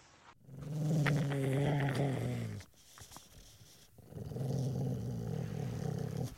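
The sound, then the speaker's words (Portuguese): Angry dogs give two long, low, rumbling growls, each lasting a couple of seconds with a brief quiet gap between them; loud, with no talking. “Cachorros bravos rosnando.”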